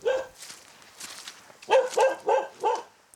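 Dogs that gather around a military post near the border in Luhansk region, Ukraine, bark in a quick run of four sharp barks after a brief fainter yelp and a lull, with no talking.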